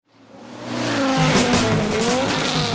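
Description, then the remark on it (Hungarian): A rally race car, in a radio advert for the Jazzy 10 Legend Rally in Budapest on May 27, roars loudly, its engine swelling over the first second, then holds steady while tires screech and skid across the surface with rising and falling squeals. No one speaks. “Üljön kormány mögé május 27-én, és ünnepelje egy legendás autóverseny résztvevőjeként a Jazzy Rádió 10 éves születésnapját.”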